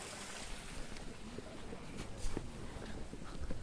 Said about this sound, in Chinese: 好惬意的感觉 有，小溪的声音。 有吗？这是小溪的声音啊，放给大家听听啊，小溪的声音。